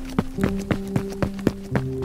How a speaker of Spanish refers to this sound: Iba pensando en ese menso de paso lento que no corría nada. Pobre caballito, si supiera que yo con todo y lo paticortica iba más rápido que él.